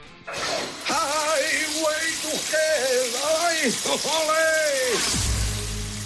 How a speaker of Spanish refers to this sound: yo sé que tienes un nombre en mente de la persona que está cantando bajo la ducha, pero vamos a escuchar una vez más esa voz por si quieres cambiar de opinión.